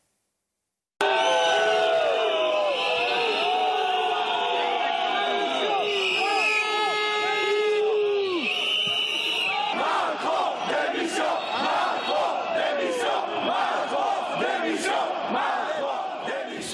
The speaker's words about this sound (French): Euh, mais juste, on va revenir sur ce qui s'est passé samedi avec la visite du président Macron, euh, le chahut, les sifflets qui ont accompagné ces 13 heures de présence. Écoutez.